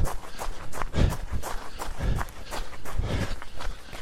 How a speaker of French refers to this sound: Passage dans du gravier, vous les allez entendre.